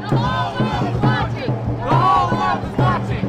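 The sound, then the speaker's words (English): A large crowd of protesters chants in loud, rhythmic unison that they are peaceful, voices rising and falling together in repeated bursts over a steady low rumble of the gathered mass. “the protesters chanted that they were peaceful”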